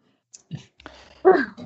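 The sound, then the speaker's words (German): Rustling and light clicking as headphones tangled with a phone and pens are handled and tugged apart, ending in a louder plastic clatter and scrape, with no talking. “Moment, es ist aber gar nicht so einfach, das alles zu machen, weil sich meine Kopfhörer hier mit dem Handy verhackt. Und mit den Stiften.”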